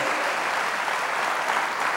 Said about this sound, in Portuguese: Quantos acreditam neste Deus, aplauda ele.